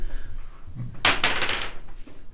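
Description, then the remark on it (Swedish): Dice clatter across a tabletop during a role-playing game fight: a sharp burst of rattling, then a quick series of lighter clicks as they tumble and settle, with no one speaking. “Så vi kan slå tärningarna”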